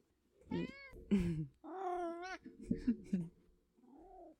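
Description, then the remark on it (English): A cat meows several times, a string of drawn-out, wavering cries with short gaps between them, the last one quieter and shorter. “Special guest star Otis. He's back again. you want to meow into the mic for me?”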